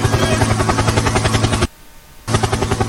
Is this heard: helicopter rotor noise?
yes